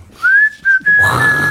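A person whistles a single sustained tone that rises slightly and then holds steady, with brief breaks between breaths, heard up close over faint background noise.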